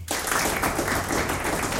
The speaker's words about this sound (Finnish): Mutta mikä on nyt vuoden auto 2023 Suomessa? No kolmen kärki on Renault Megane E-Tech – kakkosena Mersu Egue ja ykkösenä annetaan aplodit.